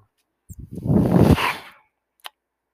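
The speaker's own medical ventilator cycles once: a few stuttering puffs build into a loud, breathy mechanical whoosh for about a second, then fade, followed by a single sharp click.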